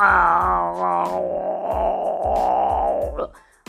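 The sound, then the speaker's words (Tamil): A person loudly imitates a tiger crying out in pain after a woodpecker pecked its eye: one long, wavering vocal wail lasting about three seconds, with steady low thumping underneath before it breaks off. “மரம் கொத்தி வேகமாக பறந்து வந்து புலியோட ஒரு கண்ணை நல்ல நறுக்குன்னு உள்ள வரைக்கும் மரம் குத்தியோட அழகு போகிற மாதிரி குத்திடுச்சு வலி தாங்க முடியாமல் புலி ஆ”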